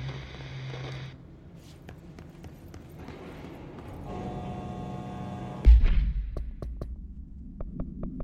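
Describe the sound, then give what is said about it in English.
A single heavy explosion booms out partway through, its deep rumble rolling off over a couple of seconds, preceded by a low droning hum and followed by sharp, scattered knocks. “if that thing blows up? Power. Explosion.”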